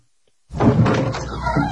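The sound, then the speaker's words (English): After a brief silence, a door is abruptly pulled open, followed by a second or so of rattling, scraping movement with no one speaking. “Let me see if Trump's at the door.”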